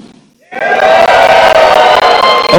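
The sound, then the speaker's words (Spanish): A brief quiet gives way to a sudden, loud burst of an audience shouting and cheering together in response to a preacher's call to shout, sustained and full for about two seconds with whoops rising above the roar. “Si tú tienes gozo, si el fruto del Espíritu Santo del gozo está activo en ti, pégame un grito.”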